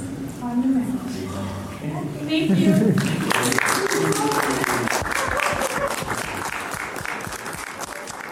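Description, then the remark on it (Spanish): A crowd at a wedding ceremony bursts into sustained applause, many hands clapping fast and dense, rising after a few seconds of cheering voices and chatter and continuing steadily to the end. “Y lo que acabas de escuchar fue la ceremonia, cortita, pero yo creo que muy, muy, muy, muy chula.”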